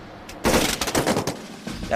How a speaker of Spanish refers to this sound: Menudo estallido, me zumban los oídos y huele mucho a pólvora.